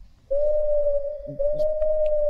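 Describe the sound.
A person hoots in a steady, pure tone, two long sustained hoots back to back with barely a break, loud, with no talking.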